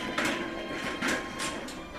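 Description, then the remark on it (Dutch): A man pushes his cart past with a steady rattling rumble, its wheels clattering in repeated bursts of scraping and squeaking over roughly two seconds, no voices present. “Wacht even opzij dat die meneer door kan met zijn kar.”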